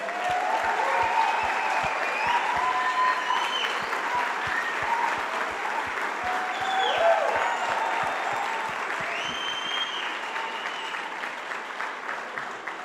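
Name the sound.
audience applauding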